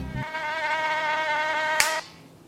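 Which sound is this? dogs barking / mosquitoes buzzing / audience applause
mosquitoes buzzing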